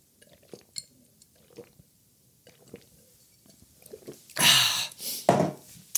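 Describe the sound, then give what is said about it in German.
A few faint glassy clinks and taps, then two loud, breathy slurping bursts as someone sips diet lemonade from a glass. No one speaks. “Darauf ein Schluck Deitlimonade.”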